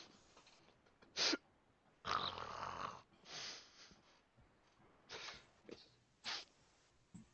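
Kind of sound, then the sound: human body sound, loud snoring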